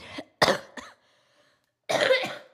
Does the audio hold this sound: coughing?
yes